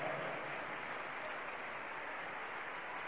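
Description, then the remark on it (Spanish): Sustained applause from an audience clapping for God, a dense wash of clapping hands at steady volume throughout, with no voices standing out. “Dale un fuerte aplauso al que vive.”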